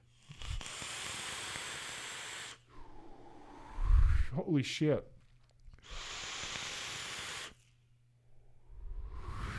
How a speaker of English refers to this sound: I, I love it. I love the warmth. I love the crackle. I really like the airflow on this full open recoil. I use some AJ Holland High Ohm Aliens in here, and it's just uh, so, uh, so good.